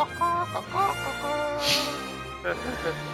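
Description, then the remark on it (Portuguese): A voice imitates a chicken's clucking with a few short, choppy, nasal bursts and warbling tones, fairly loud, over roughly three seconds with no other sounds behind it. “Aquela galinha Klingon.”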